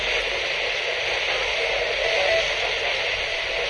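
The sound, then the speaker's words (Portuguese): Steady radio static hiss fills the whole stretch, a dense even wash of noise at a constant moderate level with no voices and no breaks. “É importante vocês prestarem atenção no chiado também, porque ele falou conheço, tá?”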